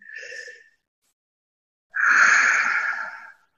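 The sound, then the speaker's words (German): A short breath is followed, after a pause, by a long, deep, airy inhale through an open mouth, fairly loud, with no talking. “Atmen, am besten mit offenem Mund, einatmen”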